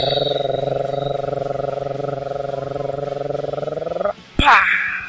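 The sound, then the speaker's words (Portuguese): A voice imitates a drumroll before a prize draw, with a steady, buzzing rolled trill that holds for about four seconds, then cuts off abruptly before a short, bright burst of sound. “Tá parecendo muito mais uma moto agrale com motor dois tempos, mas tá excelente.”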